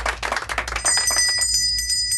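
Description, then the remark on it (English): A bell rings loud in a rapid, continuous trill, its bright metallic tone sustained for over a second after a brief clattering start, with no voices. “pause for the bell”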